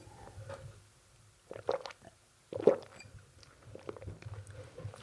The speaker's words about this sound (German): Jetzt mache ich noch einen Schluck Wasser, bevor ich genauer darauf eingehe.